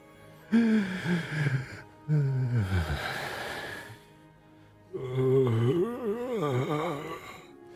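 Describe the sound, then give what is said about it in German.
Eerie moaning, groaning and wailing voices without words rise and fall in three long, wavering bursts, fairly loud, with breathy gasps and short pauses of near silence between them. “Allerdings keine Sprache, keine Worte, die dir antworten, sondern eher jammern, stöhnen, mhm.”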